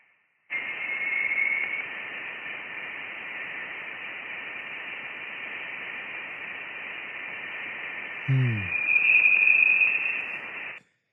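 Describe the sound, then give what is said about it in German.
Steady hiss of radio-like static with a thin, sustained high whine running through it, electromagnetic waves shifted down into the audible frequency range, recorded between October and November; a brief warbling burst appears near the end. “die elektromagnetischen Wellen halt ein bisschen runter in den Frequenzbereich, den wir hören können, runter transformiert”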